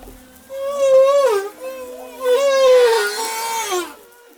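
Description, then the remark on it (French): Humpback whales in Madagascar sing: long, wavering harmonic moans that rise and fall in two swelling phrases, clear and fairly loud, with a faint steady hum beneath and no voices. “Vous écoutez Des baleines à bosse situées à Madagascar.”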